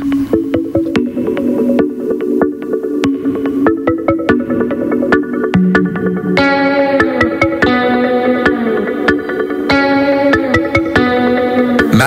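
A song plays loud and close, with a steady punchy beat under bright, layered synth chords that thicken partway through; no voices come in.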